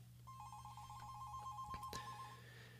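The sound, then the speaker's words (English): A telephone rings for an incoming call to the live on-air Mystic Show: one sustained warbling electronic ring over a low steady hum, followed by a couple of sharp clicks like a handset being picked up. “And wow, we're actually getting a phone call right now.”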